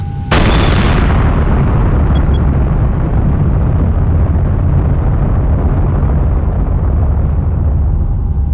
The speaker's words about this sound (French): Mais alors tu peux nous faire une explosion au moins là ah Bah ouais, bien sûr.